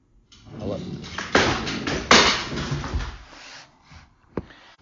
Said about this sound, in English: My goddamn cat just broke my favorite picture frame running around the goddamn apartment.